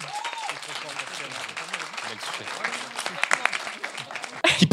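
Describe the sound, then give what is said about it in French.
An audience breaks into sustained applause to show who agrees with a statement, a dense wash of many hands clapping with scattered voices mixed in, swelling into a louder burst near the end. “Par applaudissement, qui est d'accord avec ça”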